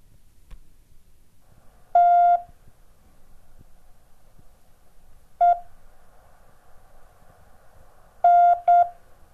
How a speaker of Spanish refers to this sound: Épocas desatadas, desastrosas, donde el mensaje de la industria radial que se aprobaba o que estaba en ese momento se encontraba en clave Morse.